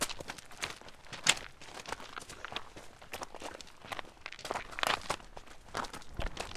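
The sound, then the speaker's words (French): Footsteps crunch steadily along a small, dry, stony garrigue path at the site de la Couleuvre in the garrigue de la Clape above Narbonne, fairly loud, with gravel and brittle vegetation crackling underfoot at an even walking rhythm; no one speaks. “On vient de marcher sur un petit sentier et là on arrive sur une plateforme qui domine les temps de Bage Sigean.”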